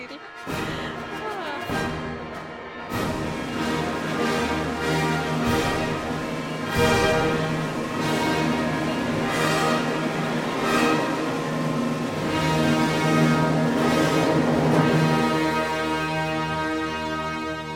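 Heavy cannon shots boom out at irregular intervals over a dense, sustained wash of pealing church bells and ringing tones, the whole mix loud and continuous throughout.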